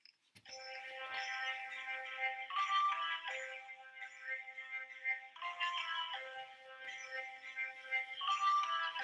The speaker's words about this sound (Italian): È una base karaoke, quindi non ci sono le parole, dovete riuscire a indovinare la canzone che vi sto per far sentire.